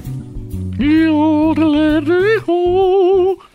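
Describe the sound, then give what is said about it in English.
A single voice imitates a yodel loudly, its pitch leaping and warbling between low chest tones and high bright notes in a continuous, rhythmic run lasting a few seconds. “So they have some a square of white chocolate, and then they begin to yodel, and it sounds something like this”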